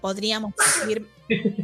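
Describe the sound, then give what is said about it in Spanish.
A single sharp, loud sneeze bursts out between stretches of someone talking and a short laugh. “Salud. Salud.”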